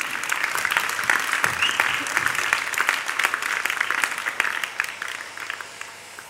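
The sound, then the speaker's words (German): An audience applauds a participant who has just finished a feedback exercise, a dense wash of many hands clapping at an even level for several seconds with no voices standing out. “Ihr dürft ihr einen Applaus geben.”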